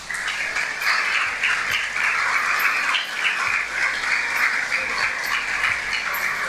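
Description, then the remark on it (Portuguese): An audience at a church service applauds the word of the Lord steadily for several seconds, a dense, continuous wash of many hands clapping at an even, fairly loud level, with no voices heard. “Vamos aplaudir a palavra do Senhor.”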